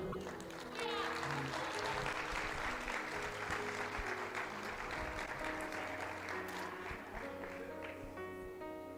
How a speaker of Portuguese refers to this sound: Aplaudam o Senhor.